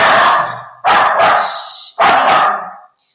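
A dog barks loudly and close by, three sharp barks in quick succession, each with a brief raspy tail, with no talking underneath.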